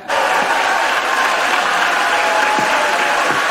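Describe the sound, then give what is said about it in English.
Sustained applause and scattered cheering from senators in a chamber after a nomination is confirmed 53 to 47, with Mitt Romney on his feet cheering; steady and dense throughout, with occasional faint shouts rising above the clapping. “Now, here's Kamala Harris announcing the vote, and suddenly you have Mitt Romney on his feet cheering.”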